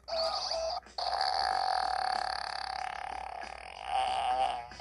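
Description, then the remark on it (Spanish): A toy robot lets out a long, buzzy electronic fart, cutting out briefly near the start before continuing loud and steady, with a warbling rise toward the end. No one speaks. “Eh, vamos con Robot Pedos a ver qué nos dice.”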